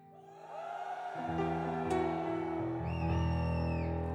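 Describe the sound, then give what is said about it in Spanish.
A large group of men in a church audience shouting together on request in a sustained, loud roar of voices that swells after a second and holds steady, with a few higher cries rising above the mass. “Griten.”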